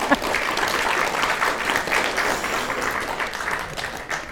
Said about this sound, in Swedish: Tack för det och det kommer applåd, ni får applådera!